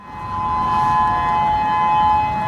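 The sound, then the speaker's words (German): A civil defense warning siren on the Hawaiian Islands, tested monthly as an earthquake and tsunami alarm, wails with a steady, sustained tone, holding one pitch with faint harmonics above it, loud and continuous with no voices. “Einmal im Monat geht der Alarm an auf den hawaiianischen Inseln.”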